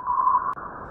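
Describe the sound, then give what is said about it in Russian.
Sonified data from a particle sensor on the Voyager 1 spacecraft, counting solar wind particles hitting the craft each second: a steady, whistling electronic tone that holds for about a second, broken once by a brief click partway through, with no voices. “То, что вы сейчас слышали, это как раз данные э, с такого датчика, который был установлен на Voyager 1.”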